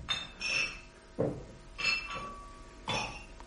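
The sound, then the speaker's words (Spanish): Glass bottles clink against each other in a loose, irregular series of bright chinks and rattles, with no voices. “Parece como si chocaran botellas entre sí. Y los vidrios.”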